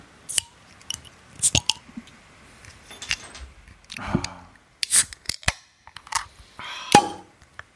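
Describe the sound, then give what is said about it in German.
Clicks and rustling as a drink bottle is handled and opened, with a louder pop-like burst partway through and sharp snaps near the end. No talking. “Und da ich auch schon eine trockene Kehle habe und Durst habe, würde ich jetzt sagen, wir machen einfach mal auf.”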